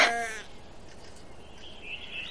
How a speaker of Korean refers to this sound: 그 아이가 알려준 대로야. 새끼 양 울음소리가 들려왔으니 우리 형도 거기 있겠지? 하지만 죽었는지 살았는지는 모르겠어.